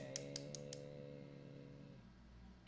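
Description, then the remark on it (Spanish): Four quick, crisp rattling shakes of a maraca in a steady rhythm, heard over a sustained low creaky droning tone that fades out after the shakes stop. “Una maraca.”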